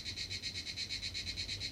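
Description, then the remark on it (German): Asian crickets chirping in a shrill, steady pulsing trill, about seven pulses a second with an alarm-like quality. The sound is fairly close and continuous, with no voices. “auch dieses, was jetzt passiert, denn ne, dieses gesteigerte, das ist ein bisschen wie so, wie so, ein, wie so ein Feueralarm klingen die ähm, asiatischen Grillen.”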